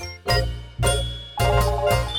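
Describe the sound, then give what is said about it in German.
A set of keys jingles in a few quick, bright shakes as they are handed over, the metallic clinks rising and fading with each movement, with no voices present. “Gut, dann äh, hier können Sie meinen Schlüssel haben.”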